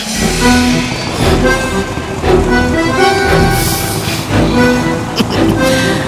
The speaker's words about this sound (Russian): Мастер, э, будьте добры, запускайте двигатель.